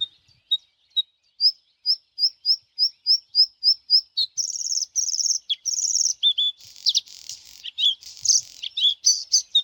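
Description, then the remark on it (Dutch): Bluethroat song, clear: a dozen ringing notes quickening into a steady run, then harsh buzzy phrases and scratchy, crackling notes with an electric quality, varied and jumbled, with no voices. “Eh, ik wil nog even dat knisperen horen hoor.”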